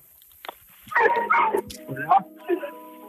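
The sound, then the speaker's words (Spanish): A dog barks about four times in quick, uneven bursts, thin and slightly muffled, heard over a phone line during a call, with a faint steady hum underneath; the caller says they bring dogs trained for investigation work. “Ahora se, se escuchó como un perro.”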